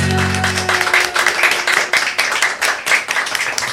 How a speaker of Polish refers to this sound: Mam nadzieję, że te oklaski się nagrały, bo tu naprawdę są ludzie